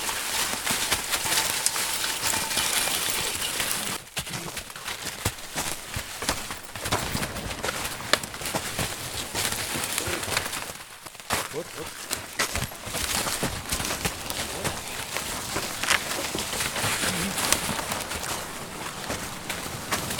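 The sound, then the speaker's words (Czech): Outdoors in a forest, a logger's horse hauls timber, with scattered hoof clops and the scraping, rustling drag of the logs through brush. Faint birdsong sits in the background, and nobody speaks. “Tak takhle zní práce haluzáka s koněm v lese.”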